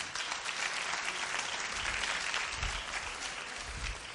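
A crowd applauds steadily for about four seconds, a dense wash of clapping hands at an even, sustained loudness with no voices standing out.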